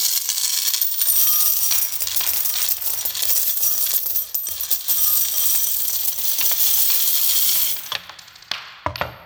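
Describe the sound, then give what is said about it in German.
A steady shower of coins pours and clatters for about eight seconds, bright metallic jingling and clinking throughout, then thins to a few last scattered clinks. “Scheppert schon richtig, gell?”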